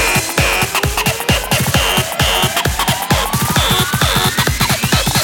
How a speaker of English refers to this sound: Now, we need some fat distortion. More distortion. I said more distortion.